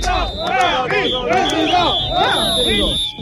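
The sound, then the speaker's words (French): A crowd boos and shouts together, many overlapping voices rising and falling in loud, sustained jeers, with a steady high whine running underneath the whole time, at the striking Whirlpool factory in Amiens, France. “Tout avait si mal commencé, des huées, des marines présidentes.”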